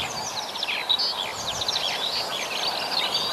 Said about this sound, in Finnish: Ja tuossa kilkutusääni on sitten tundrahan. Se on tundrahan, joo.